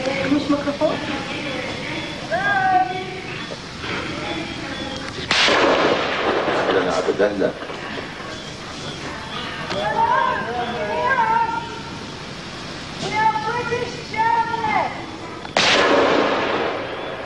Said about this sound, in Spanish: El segundo disparo había alcanzado